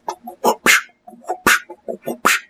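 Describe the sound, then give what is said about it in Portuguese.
A voice imitates a strange synthesizer sound heard in a song, with a loud string of short choppy vocal bursts and sharp hissy blasts, repeated in an uneven rhythm for a couple of seconds. “Tem um som muito estranho de sintetizador nessa música de antes também.”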